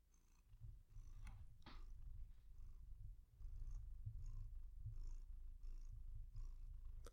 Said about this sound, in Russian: Э, я взяла ее на ручки, поэтому сейчас мы будем записывать с вами и с котом, иначе она грустит. Вот, Зигуня, тебе стало лучше? Помурчи.